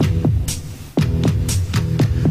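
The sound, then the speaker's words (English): A steady heartbeat-like pulse of paired low thumps repeats through a song, loud, over a droning hum with bright hissy accents between beats. “Listen to the heartbeat”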